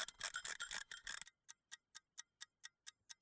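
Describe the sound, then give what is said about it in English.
A four-minute shower timer, kept on the back of the toilet, is set before a shower. It starts with a short burst of rough, ratcheting winding, then settles into a steady, crisp mechanical ticking, about four ticks per second, fairly quiet. “After supper, eager to wash off the grime and salt from the road trip and boat trip, I took a shower and dutifully set the timer.”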